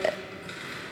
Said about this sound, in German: was man hört, ist das Klappern von einer mechanischen Schreibmaschine.